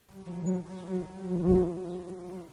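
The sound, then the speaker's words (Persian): A small bee buzzes steadily, its droning hum swelling and fading slightly as it hovers for a couple of seconds, with no voices present. “این زنبور کوچولو رو ببین بیا تو بیا تو اون بیرون چی کار میکردی؟”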